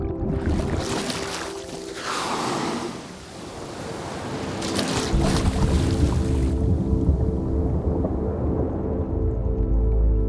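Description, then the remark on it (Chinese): Loud, breathy whooshes of a whale blowing air at the water surface, two bursts a few seconds apart over a steady low rumble of water, with no voices. “你刚听到的是鲸类靠近水面时发出的喷气声音。”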